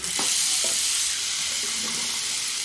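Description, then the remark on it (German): A shower in a changing room in Taunusstein runs cold water in a steady, unbroken hiss of spraying water, bright and fairly loud, with a few faint clinks underneath and no one speaking. “Er stellt in einer Umkleidekabine die Dusche an und lässt das kalte Wasser laufen.”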